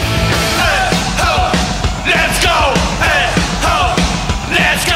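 A punk rock chant of "Hey ho, let's go" is yelled repeatedly by a group of voices, loud and close, over dense, driving band noise that fills the whole stretch.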